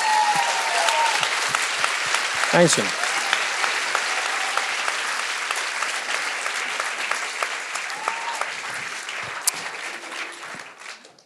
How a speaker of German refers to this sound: Das ist für mich der erste Applaus des Abends.